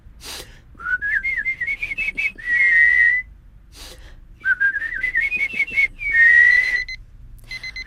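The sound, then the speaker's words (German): A person whistles a bird-like call twice: a quick run of chirpy rising notes followed by a long steady trill, fairly loud, with a short pause between the two phrases. “Hm, komm, mach doch mal mit und wer uns jetzt zuhört, kann gern mal mitpfeifen.”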